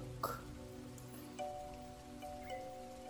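Soft, steady rain patters continuously, with a few sharper drops landing now and then. It is fairly faint and has a low, constant hum beneath it, and no one speaks.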